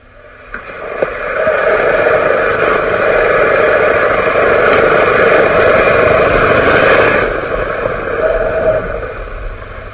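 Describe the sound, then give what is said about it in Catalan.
Deep-sea underwater ambience in the waters of Cabrera: a steady, dense rumbling drone with sustained humming tones layered over it, swelling slightly in the middle and holding constant for the whole stretch, with no voices. “Això que escoltam són les profunditats marines de les aigües de Cabrera”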